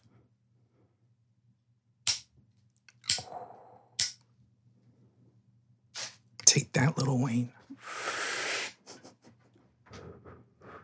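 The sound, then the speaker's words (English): Someone smoking a spliff: three sharp lighter-like clicks, then crackling and a long breathy hiss of inhaling, ending in a brief, deliberately fake cough. A short spoken line comes in amid the sounds. “I give to you smoking a spliff.”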